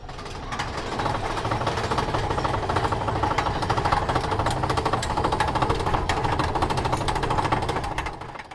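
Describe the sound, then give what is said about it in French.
A roller coaster clatters along its track in a steady, dense mechanical rattle with a deep rumble underneath, loud and continuous throughout before easing off at the very end. “Le son que l'on entend ici, c'est celui d'une montagne russe, une invention que l'on doit en partie à Granville Taylor Woods, un prolifique ingénieur de la fin du 19e siècle.”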